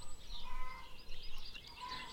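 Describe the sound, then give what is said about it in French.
A rooster crows faintly in the distance, a drawn-out, wavering call that rises and falls in pitch, repeated over a low, steady background hiss with no talking. “comme si une partie inconsciente de vous se réveillait, comme ce coq que vous entendez peut-être au loin, comme si une partie de vous plus inconsciente prenait de l'espace à l'intérieur de vous.”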